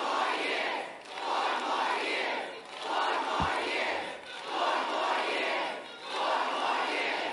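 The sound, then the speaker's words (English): A large crowd of protesters at a Joe Biden event, in a shouting match with supporters, screams and yells loudly, the roar surging and dipping in a steady rhythm about five times, like a chant, with no single voice standing out. “The protesters are still screaming in the background.”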